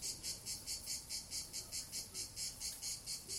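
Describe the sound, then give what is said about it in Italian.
Cicadas sing in a loud, steady chorus of shrill, high buzzing that pulses rhythmically about four times a second, with no voices and only faint background noise underneath. “Sì, non è un effetto speciale. Sono proprio loro, le cicale.”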